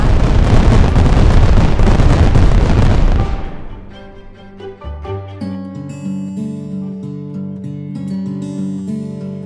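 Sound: series of explosions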